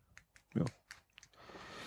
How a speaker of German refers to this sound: Hast du den Fidget-Würfel in der Hand? Kann das sein? Nein. Nein. Ich hatte den fidget würfel in der Hand.